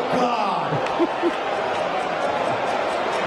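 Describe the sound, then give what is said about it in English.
A single sharp smack of an open-handed slap to the face in a slap-fighting competition bout cuts briefly through loud, steady crowd noise, with indistinct voices and murmuring continuing around it. “When the open handed blow is delivered, there's a sharp report, and the reaction can be dramatic.”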